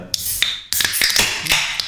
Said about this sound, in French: Je pense qu'on va la boire. Alors, vous pardonnerez le bruit immonde de l'ouverture de ces belles canettes.